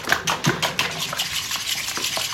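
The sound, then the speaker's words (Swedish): Eggs being whisked in a bowl for the sauce of a macaroni pizza: quick, steady strokes of the whisk clinking and scraping against the sides, moderately loud, with no voices. “Och så tar vi och vispar upp äggen och sen ska vi hälla i mjölken”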